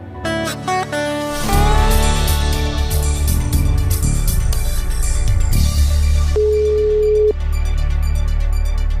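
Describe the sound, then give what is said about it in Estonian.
A loud, busy music bed plays throughout, and near the end a single steady ringback tone of an outgoing phone call sounds for about a second over it, with no talking. “seekordses Eesti Ekspressi podcastis helistan ühele mehele, kes oskab selle äri telgitaguseid avada”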